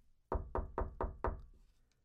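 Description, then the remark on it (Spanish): Five firm, evenly spaced knocks on the door of the parents' bedroom in a house with no one else home, loud, each with a short resonant thud, followed by quiet. “La puerta, güey, del cuarto de papás, güey sin haber nadie, güey.”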